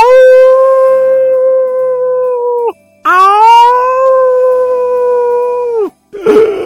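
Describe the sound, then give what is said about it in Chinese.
A narrator's voice imitates a wolf, giving two long, loud, sustained howls separated by a brief pause, the tone steady with rich harmonics before ending in a short burst of noise. “这时门开了，出现在大家面前的是一只狼。是的，是一只狼！嗷！”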